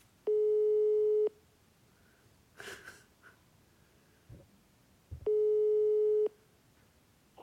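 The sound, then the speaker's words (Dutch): Two long, steady telephone ringback tones of a call placed during a broadcast, each about a second, separated by a pause with soft breathing and a brief rustle in between; no one speaks. “Nou, dan gaan we hem even lekker bellen.”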